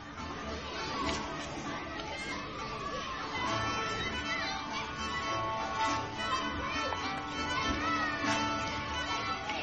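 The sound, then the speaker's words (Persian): A busy crowd of young and older children's voices fills an old courtyard where families have gathered at a large family house, with overlapping chatter, calls and shouts at a steady, lively level. No single voice stands out from the constant babble. “چشم هاتون رو ببندید و تصور کنید یه حیات قدیمی پر از سر و صدای بچه های کوچیک و بزرگ خانواده ها کنار هم خونه بزرگ خانواده جمع شدن”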